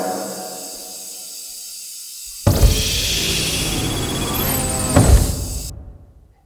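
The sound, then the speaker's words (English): A heavy door slides shut and seals with a loud, sustained hissing rush, ending in one solid thud before the noise fades away. No one speaks. “I will seal the door once you are inside.”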